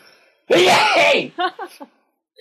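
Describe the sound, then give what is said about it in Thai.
A single loud sneeze bursts out with a drawn-out, voiced edge, then a few quick spoken syllables follow. “วันนี้ไม่เลยแต่วันนี้จาม”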